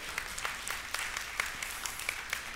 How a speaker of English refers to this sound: For me and my son, Jesus showed up. And it, yeah, you can applaud, that's great.